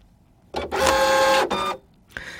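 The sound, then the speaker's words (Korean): A fax machine receiving a transmission: a short mechanical whir, then a loud, steady buzzing stretch of about a second with tonal whine, a brief burst after it, and a final click-like start. “팩스가 들어오는 소리예요.”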